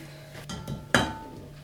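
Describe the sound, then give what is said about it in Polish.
The first glass of flour is tipped into a pot of mixed liquid ingredients: a short soft rustle, then one sharp clink of glass against the pot that rings out briefly. No one speaks. “dodam pierwszą szklankę mąki”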